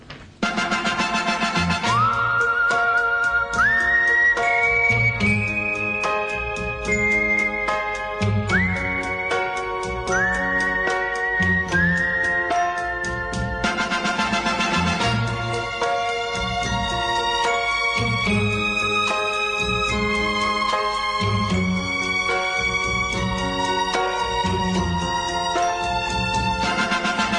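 A lively pop song plays loudly and steadily, with a bright, whistle-like lead melody gliding upward into long held notes over a pulsing rhythmic accompaniment; no lyrics are sung yet.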